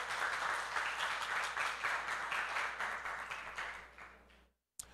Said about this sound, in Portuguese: Isso, aplauda ao Senhor.